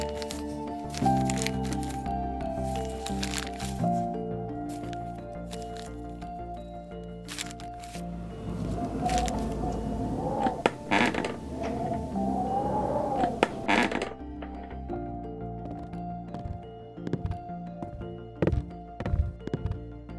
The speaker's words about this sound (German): der Holzboden knarzt. In der kargen Leere des kleinen Raums hallen meine Schritte von den weißgetünchten Wänden wieder.